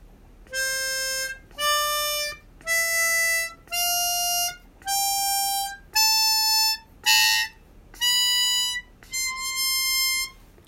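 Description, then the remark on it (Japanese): A harmonica plays a slow ascending do-re-mi scale from do up to the high do, one bright reedy note at a time with short gaps between, clear; one note near the end comes out breathy and rough. “このなんかいいですねこのハーモニカの音ねえー、でドレミファソラシドとりあえず吹いてみましょうか。”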